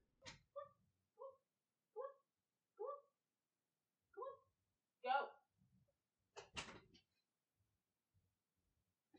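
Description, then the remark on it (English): A cat meows insistently, about six short plaintive cries in a steady series as it asks to be let out, followed by a brief rattling clatter like a door being handled. “Cat, you better actually want out this time.”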